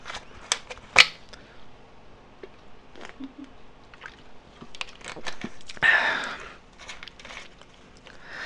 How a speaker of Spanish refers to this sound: Vamos a tomar tantita Coca-Cola porque no me traje agua.